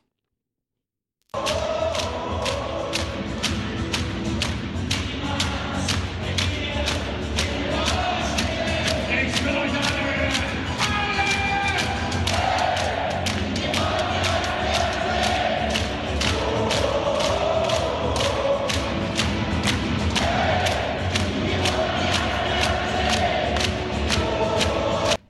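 A huge ice hockey arena crowd of about 15,000 spectators, all standing in ovation at the team entrance, roars and cheers nonstop for about twenty-five seconds, a dense wall of voices punctuated by steady rhythmic clapping or drum-like thumps, with shouts and whoops rising through it.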